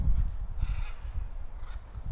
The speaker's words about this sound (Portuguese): Ó, duas araras voando. Arara azuis com os peitos amarelos passaram ali voando agora. Olha só que bacana.